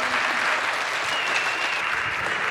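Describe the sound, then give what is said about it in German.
Steady audience applause for Tijen Onaran at a live event in Leipzig, a dense continuous wash of many hands clapping at an even level throughout, with no voices standing out. “Ihr großer Applaus für die einzigartige, wundervolle, nicht nachahmsbare Tijen Onara, meine Damen und Herren.”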